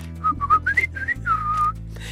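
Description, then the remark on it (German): Artistic whistling: a clear melodic whistle that flits between short gliding notes and quick trills, carrying on for about two seconds over a low, steady background hum. “Als Kunstpfeifer zwitscherst du wie ein Vögelchen und pfeifst die tollsten Triller.”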